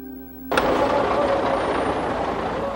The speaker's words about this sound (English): The refugees came through in 11 covered trucks. Those who managed to peek out the sides waved happily but their smiles belie the horror of this exodus.